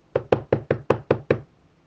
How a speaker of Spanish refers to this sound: Un día, alguien tocó a la puerta.